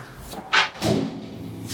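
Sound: door being closed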